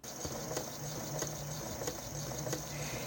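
A sewing machine runs steadily with a low motor hum and a faint high whine, punctuated by regular mechanical clicks about every two-thirds of a second, at moderate volume.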